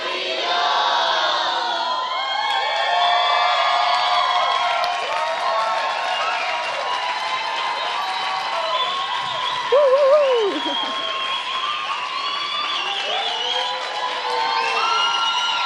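A full-house concert crowd in the Sala Julián Carrillo roars as a band takes the stage, with sustained cheering, whistles and high-pitched screams, a dense wall of shouting voices that swells loudly and holds steady throughout, with occasional sharp whoops rising above the din.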